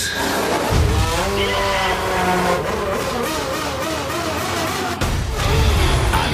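Formula 1 race cars roar past loudly, their high engine whine rising and falling in sweeping pitches, with a sudden cut near the end before the roar resumes, continuous.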